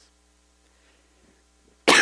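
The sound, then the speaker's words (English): Near silence, then one sudden, loud sneeze bursts out, sharp and explosive, filling the final moments before it cuts off. “Well, let me let you in on something after I sneeze.”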